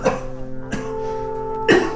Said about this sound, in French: avec ta toux là, Ouais. vous étiez en RDC la semaine dernière, c'est ça